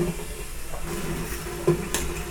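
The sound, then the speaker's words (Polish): Water bubbles at a steady boil in a pot on a small burner, a continuous hiss and gurgle with a few small clinks and pops rising briefly above it. “Woda się gotuje i...”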